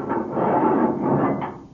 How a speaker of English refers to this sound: Guard! Open the Edith Cavell cell door.